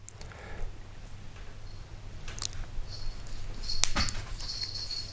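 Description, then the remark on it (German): A tomcat playing wildly: scattered light clicks, scrapes and rustling bursts, one sharper knock near the end, over a steady low hum, with no talking. “mein Kater spielt hier wieder verrückt.”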